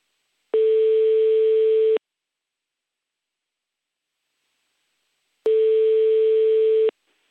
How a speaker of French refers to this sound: personne n'a répondu au téléphone. Alors, c'est la première, la première fois que personne ne répond au téléphone.